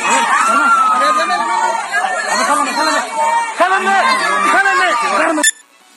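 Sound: crowd chatter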